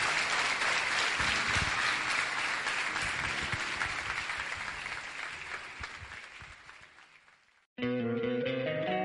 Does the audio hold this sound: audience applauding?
yes